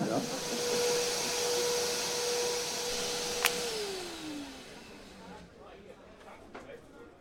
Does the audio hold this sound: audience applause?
no